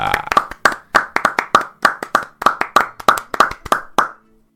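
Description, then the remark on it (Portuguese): A round of hand clapping, sharp repeated claps in a brisk, fairly regular rhythm, fairly loud, ending abruptly after a few seconds with no voices. “Muitíssimo obrigado por essa salva de palmas”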